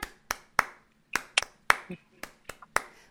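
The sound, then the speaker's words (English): About ten sharp hand claps, clapping on the numbers of the children's song "William He Had Seven Sons", ring out in a lively, uneven rhythm, some spaced apart and some in quick pairs, each one crisp and fairly loud against near silence. “And you clap on all the numbers.”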